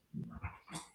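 Dogs whimper and give short barks in the background, three quick, fairly faint yelps and whines in about a second, with no one talking.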